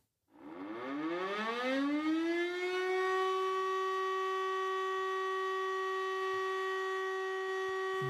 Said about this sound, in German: Ja, natürlich kennt ihr dieses Geräusch, das ist eine Sirene. Ah, die sind übrigens heute zum Teil auch digital gesteuert, das heißt, die Überprüfungszyklen werden dann eben digital ausgelöst.